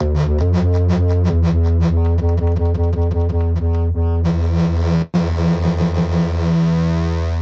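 A loud, buzzy synthesizer bass engine with a shifting pulse-width timbre plays alone, first as rapid rhythmic notes, then as sustained droning tones broken by one brief cutout.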